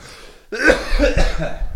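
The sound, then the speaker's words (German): A person coughs, a harsh burst followed by a few rougher, throaty coughs running together over about a second, with no talking. “So, jetzt muss ich mal husten.”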